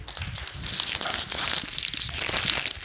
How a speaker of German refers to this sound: Und jetzt zieht sie einen Glückskeks. Dann bitte öffnen